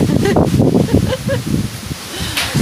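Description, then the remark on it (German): Strong wind blows outdoors, growing ever stronger, a steady rushing and buffeting roar with rustling, while people talk over it. “Mann und oh Mann, der Wind wird immer stärker.”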